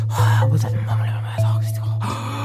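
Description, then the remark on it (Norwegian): A single voice imitates a shocked audience's gasping, as if in a courtroom where something terrible and shocking has happened, with drawn-out breathy intakes and voiced murmurs running continuously for a couple of seconds, fairly loud. “Og de begynner å lage lyder, som om de er i en rettssal og noe, noe helt forferdelig har skjedd, noe sjokkerende.”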